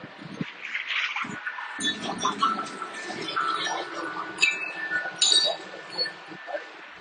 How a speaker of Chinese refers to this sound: 这是我在奥斯汀非常喜欢的一家户外用品店，门口挂了风铃，有风的时候会很好听。